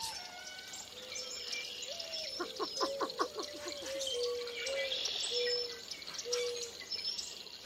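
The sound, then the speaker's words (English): A dawn chorus of red-winged blackbirds, northern cardinals and boat-tailed grackles calling at once from thickets around the pool at Lacassine Pool national wildlife refuge in early spring: repeated clear whistled notes, a burst of rapid rising chirps, and harsh, rasping calls layered over a steady outdoor background. “Red-winged blackbirds are calling from the thickets around the pool, along with melodious northern cardinals and gravel-voiced boat-tailed grackles.”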